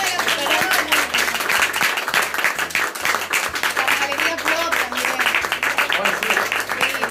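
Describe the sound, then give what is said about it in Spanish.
Loud, dense audience applause for the public at a comics event at Galería Pro, lasting about seven seconds, steady crackling claps with a voice speaking over it and a low droning tone underneath. “Y gracias, Un aplauso para, el público de la”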